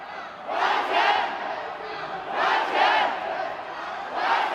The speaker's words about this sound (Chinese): 中国恒大集团深圳总部大厅被抗议民众塞爆，疑似有员工也很不满，挡在电梯口外，爆发推挤冲突。投资人向恒大买了理财商品，但到期了却无法赎回，就连员工自己也受害。连续三天到总部抗议，有人想到积蓄可能血本无归，当场痛哭失声。